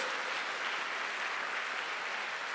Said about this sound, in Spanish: Dele fuerte ese aplauso al Señor. Fuerte ese aplauso al que vive por los siglos de los siglos.